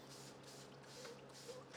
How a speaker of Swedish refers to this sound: Då tar jag den här eh, blomstersprutan ja. och sen kör jag uppifrån och ner på det här sättet.